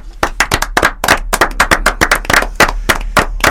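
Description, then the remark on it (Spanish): Audience applause for the author of a story entered under the pseudonym Espinillo: a steady patter of many hands clapping, irregular and crisp, holding at a moderately loud level for a few seconds with no voices over it. “Para quien va el aplauso, quien está detrás del seudónimo Espinillo, se llama”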